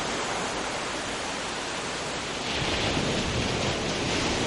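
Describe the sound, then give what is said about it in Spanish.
A steady, hissing wash of distant sea surf with no voices, the rushing roar swelling a little louder partway through and holding steady to the end. “También pasan cosas raras, y veo luces de colores, incluso me parece oír como un mar a lo lejos.”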